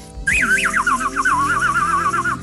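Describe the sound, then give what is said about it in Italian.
A bird call whistle warbles in a high, wavering tone, first in a few broad swoops and then in a rapid trill, sounding continuously over a low musical backdrop. “quanti viaggioni spaziali potete farvi con un richiamo per uccelli”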